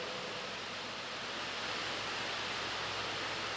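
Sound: rain falling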